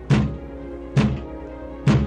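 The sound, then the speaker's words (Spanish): Three heavy knocks on a wooden door, evenly spaced about a second apart, each a dull low thunk with a short ringing decay. “se oyó que alguien llamaba a la puerta.”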